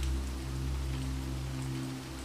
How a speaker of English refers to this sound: You peer out the windows as rain cascades down the dozens of panes.